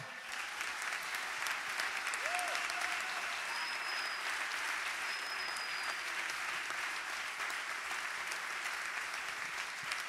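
Sustained applause from a theatre audience for the musicians of a band after they are introduced, a steady dense patter of many hands clapping at even loudness throughout, with a few faint whistles rising above it.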